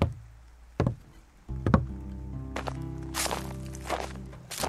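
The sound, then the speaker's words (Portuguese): Bare footsteps thud on the wooden planks of a pier at a slow pace, with the boards creaking and groaning under the weight, moderately loud, a low hollow rumble beneath. “Ele se levantou e caminhou em direção à extremidade do pier que se conectava com a terra firme, notando o ranger das tábuas de madeira sob seus pés descalços”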